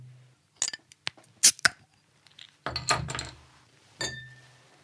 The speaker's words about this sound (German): Ja, darauf, denke ich, sollten wir jetzt mal in aller Ruhe anstoßen.